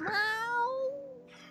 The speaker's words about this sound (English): I saw the, the when the cat was meowing upstairs when she went in the closet. Oh, when she heard the cat meowing.